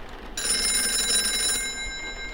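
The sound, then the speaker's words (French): A telephone rings in a home in the south of France at 9 pm on 27 December 1985, with heavy rain outside: a bright, sustained electronic bell tone that starts abruptly and holds steady for about two seconds, clear over a faint background hiss. “Le téléphone sonne.”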